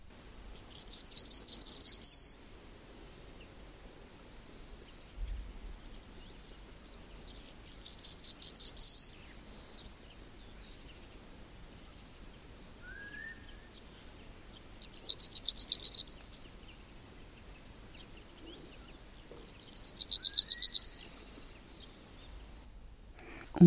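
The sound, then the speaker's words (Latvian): A yellowhammer in Latvia sings four clear, evenly spaced phrases, each a rapid run of repeated high notes ending in a longer drawn-out final note, with quiet pauses between and no voices. “Jā, sāksim tad ar eh, stērsti, dzelteno stērsti Latvijā.”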